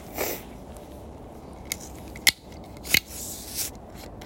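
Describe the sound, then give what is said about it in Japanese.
A just-bought warm drink container being opened on a cold day: two sharp metallic clicks about half a second apart, then a soft, short hiss, over a quiet background with no talking. “えー、じゃあこれをね開けて飲もうと思います”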